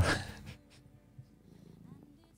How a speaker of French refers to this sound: Oh yes, le ronronnement. Eh, on l'a entendu.